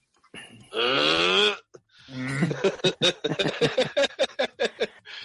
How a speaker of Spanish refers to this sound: ¿Y por qué tanto bostezo? Porque tanto bostezo, no sé, güey.